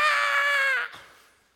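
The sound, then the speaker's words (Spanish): A single loud, sustained scream from a human voice mimicking a demon, harsh and strained for almost a second before cutting off abruptly, leaving a faint fading tail. “Se ha visto que a veces se hacen unos shows. Espíritu diabólico. Y seguro el demonio hace así.”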